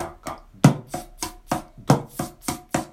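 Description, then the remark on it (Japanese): A small cajon plays a steady sixteenth-note drum pattern of quick alternating right-left slaps, with deeper bass-drum thumps on the first note of the first beat. No voices, just the even rhythmic hits. “まあ、これは前回もやったことなので、まあ、復習になるんですけれども、えー、タカタカタカタカっていうのを、え最初の1拍目を、1拍目の最初の音を、えバスドラムを鳴らします。”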